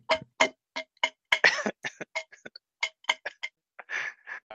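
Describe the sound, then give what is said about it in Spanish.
The pull tab of an already-opened beer can flicked repeatedly, a quick irregular series of sharp metallic clicks and snaps, with a couple of longer scraping rattles between them and no talking. “Ahí preparado el efecto de, la anilla de la cerveza”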